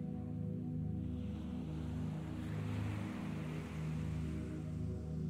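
Ocean waves wash steadily in a continuous, moderately loud surge, swelling slightly midway, over a constant low droning hum like a boat engine, with no voices.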